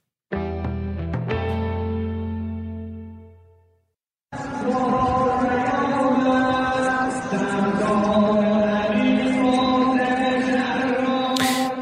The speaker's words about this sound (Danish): det er lyden fra den iranske by øh, Kerman, hvor den øh, iranske general Qasem Soleimani blev øh, begravet i går